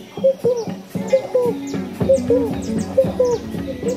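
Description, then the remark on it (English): A frog calls over and over in a forest in a steady, rhythmic pattern of short hooting croaks, clear, with faint chirps from other forest creatures in the background. “There was this frog making this sound.”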